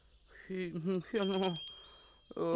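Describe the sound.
A small bell, rung as a house doorbell, sounds a bright, sustained tone that lingers and fades over a couple of seconds, while voices speak and vocalize around it.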